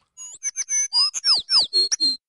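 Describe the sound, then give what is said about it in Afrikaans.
A small bird chirps in a quick run of about ten bright, sweeping notes, clear, with no voices. “Julle het reg gehoor, dis 'n voeltjie.”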